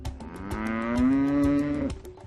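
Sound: cow mooing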